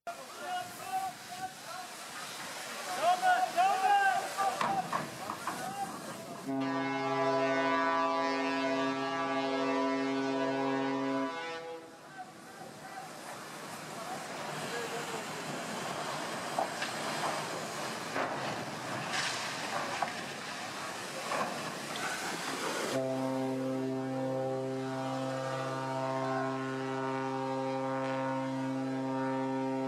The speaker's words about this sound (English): The guy dr- just drives his his ferry like at full blast onto the beach and shoves two other huge boats out of the way.